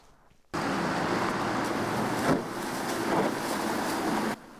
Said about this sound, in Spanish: Y ahí lo escuchaba... es el golpe de un vehículo, de un auto contra un bache. Y es que esta problemática se vuelve más aguda conforme pasan las lluvias en California.